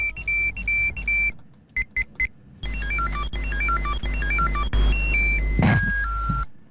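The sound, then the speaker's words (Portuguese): Shrill electronic beeps from a 1990s Tamagotchi virtual pet chirp in quick melodic bursts, with short stuttering pauses before a longer run of bleeping tones, fairly loud, no voices. “Este era o som da melhor ideia da década.”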